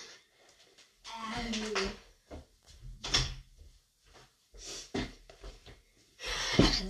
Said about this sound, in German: Mir ist gerade aufgefallen, dass ich meine Tür auch zumachen muss. Deswegen mache ich jetzt kurz meine Tür, Tür, Tür zu.